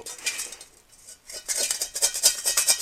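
Metal cutlery clinks and scrapes against a plate as someone eats fried rice, a sparse first half giving way to rapid, bright repeated clicks and scrapes in the second half, with no talking.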